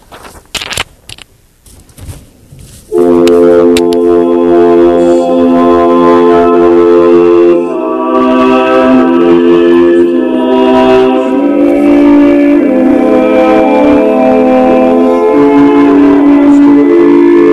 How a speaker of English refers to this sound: When you think about the Renaissance in music, um, this is the kind of sound that you might already be familiar with with that the, the, the typical Renaissance sound is this one right here.